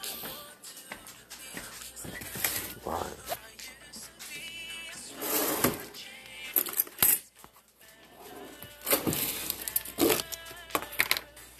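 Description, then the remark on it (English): Quiet sounds of tea being made: sugar granules pattering into a cup amid light ceramic clinks and taps, coming in intermittent bursts with no talking. “Welcome to the ASMR making tea, I guess.”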